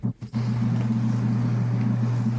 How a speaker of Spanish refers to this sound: hay un camión ahí aparcando.